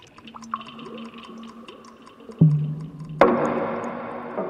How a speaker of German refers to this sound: oder plätschern oder aus der, aus der Wasserleitung rauschen